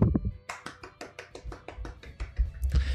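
Brief applause: a steady, even run of roughly fifteen sharp hand claps at a quick pace, fairly loud, over a low background hum, with no talking.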